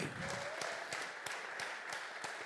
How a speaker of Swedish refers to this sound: Fantastiskt. En applåd. Här.